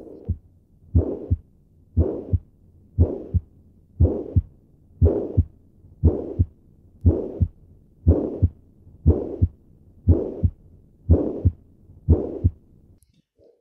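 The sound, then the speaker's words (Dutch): A steady heartbeat with a short ejection murmur, each beat a brief whooshing swish right after the first sound, repeating about once per second, clear with no talking. “Dus ehm, een voorbeeld van een eh, korte ejectiesoefel ehm, is dit bijvoorbeeld.”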